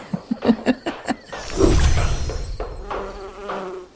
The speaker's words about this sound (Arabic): يوه من اين اتى هذا الدبور اللعين اف علي أن أنفخ على النار دون توقف كي تكتمل المطرقة آخ تبا لك يا دبور النحس أرصتني في أهم مرحلة